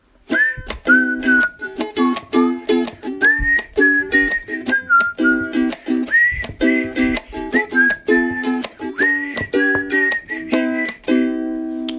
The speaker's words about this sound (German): Ich kann gerade nicht so gut pfeifen, weil ich eine Kippe in der Fresse habe.